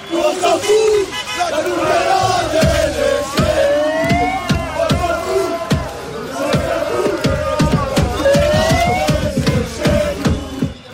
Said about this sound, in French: Ça a duré euh, toute la soirée comme ça, des pétards, des fumigènes, des chants et même des dizaines de rouleaux de papier toilette jetés sur le parquet